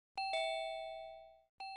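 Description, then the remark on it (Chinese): A chiming villa doorbell rings, waking a man from bed: two quick bright tones that ring out and slowly fade, then a third chime begins right at the end. No voices. “一阵门铃声把庞不惊唤醒，他猛地从床上起来，坐定后仔细听了听，没错，是门铃声。”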